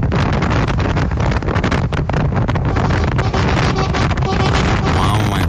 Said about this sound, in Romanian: Era vânt.